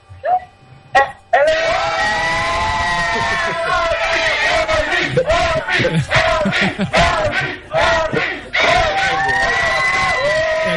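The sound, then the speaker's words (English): A loud crowd in Nicaragua screams and cheers excitedly over a Google Plus live stream in a dense, continuous roar of many voices, slightly distorted as if coming through a speaker or stream, after a single voice briefly speaks at the start. “I can see on the screen that they're going crazy.”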